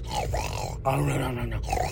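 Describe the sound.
A man's voice imitates loud snoring, rough guttural grunts pulled out in two long breaths with a brief pause between, loud, with no words spoken.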